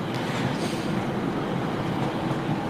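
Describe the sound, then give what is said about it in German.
Steady outdoor rumble in front of a train station, a dense wash of traffic and rail noise with passing cars blending into a continuous roar; no one speaks. “ich stand vor dem Bahnhof, glaube, hoffe, man hört es trotzdem gut. Es sind Autos”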